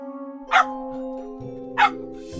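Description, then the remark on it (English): Jack's puppy barks twice, two short sharp yaps about a second apart, waking Jack, over a steady background of sustained musical tones. “Jack's puppy is barking.”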